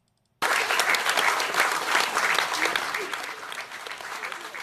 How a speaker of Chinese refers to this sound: 其实呢，刚刚我们听到的这样的一段表演，也是获得了大家的非常热烈的掌声啊！